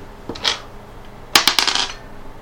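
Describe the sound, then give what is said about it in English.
Dice being rolled for a tabletop role-playing game check: a couple of light taps, then a quick burst of sharp, bright clatters as they tumble and settle on a hard surface. No one speaks. “Alright, make me your roll.”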